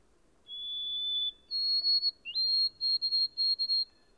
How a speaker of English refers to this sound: Its song is very delicate and plaintive, a thin, wavering, tremulous whistle which disappoints one, however, as it ends when it seems to only have begun.